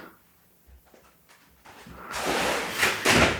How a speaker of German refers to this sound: in seiner Prenzlauer Bergbutze da den knarzenden Türen, den knarzenden Dielen.